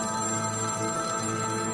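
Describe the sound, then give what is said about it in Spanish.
A telephone rings steadily and continuously, a bright trilling bell tone filling the whole moment at moderate loudness, with no voices. “Molesta ya con él, ella llama a Lori por teléfono”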